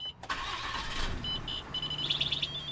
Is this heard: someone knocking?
no